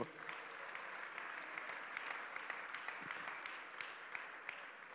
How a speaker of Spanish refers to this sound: ¿Cuánto da un aplauso al Señor?